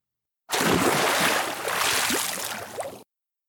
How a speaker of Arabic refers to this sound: رات فرس النهر بقرب النهر قالت فرس النهر انا الحيوان الاقوى في افريقيا وقفزت في النهر مطلقة رذاذا قويا